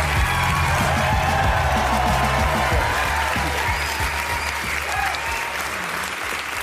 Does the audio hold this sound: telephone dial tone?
no